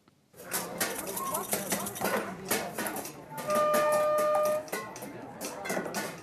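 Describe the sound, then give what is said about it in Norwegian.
Busy, irregular clanging of sticks beating on tin cans at the Popsenteret in Oslo, Norway, where children and adults make music from junk during winter break, with loud metallic hits in rapid clusters and a brief ringing tone midway, while voices murmur faintly in the background. “Det blir dundret løs på blikkbokser på Popsenteret i Oslo.”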